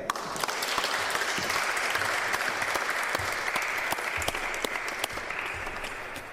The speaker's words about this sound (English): Let's give her another hand.